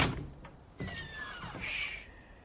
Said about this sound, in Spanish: La puerta principal del albergue se abre.